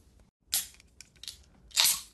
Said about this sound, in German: Zack, da ist das Bier schon offen.